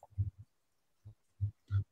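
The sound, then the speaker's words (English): Snippet of advertisement audio playing from a phone: a handful of short, low, grunt-like bursts in an uneven rhythm, fairly quiet and tinny, with no one talking over it. “Sorry, an ad just popped up on my uh, phone. Like, wait, what is that audio?”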